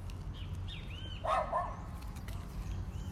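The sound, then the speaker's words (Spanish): A small dog gives a quick burst of high yapping barks outdoors on a street, against a steady background hum with faint birdlike chirps earlier. “Mira, pegarle a ese perrito enseguida.”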